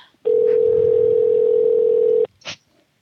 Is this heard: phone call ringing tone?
yes